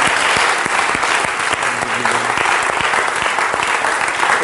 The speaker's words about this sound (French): Amen. Amen. Acclamons très fort le Seigneur. Alléluia.